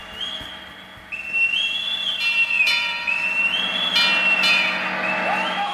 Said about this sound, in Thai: ท่านผู้ฟังครับนกหวีดเรือนะครับเป็นสิ่งที่ใช้ประกอบในการดำเนินชีวิตอย่างหนึ่งของทหารเรือในเรือรบ โดยจะใช้เพื่อเป็นสัญญาณในการทำกิจกรรมต่างๆ ไม่ว่าจะเป็นการเป่าปลุก เป่ารับประทานอาหาร เป่ารวมแถว เป่าเลิกงาน เป่าในการเชิญธงราชนาวีขึ้นสู่ยอดเสา